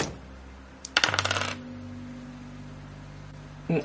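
A quick burst of hard clattering clicks as two dice are rolled for an athletics check in a game, tumbling and rattling across a table and settling within half a second on a three, followed by quiet and a brief soft knock near the end.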